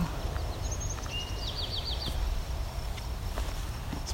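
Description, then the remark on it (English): A distant field sparrow sings faintly: a few high, clear whistled notes followed by a quickening run of short down-slurred notes, heard over a steady low rumble with no voices. “We hear a field sparrow.”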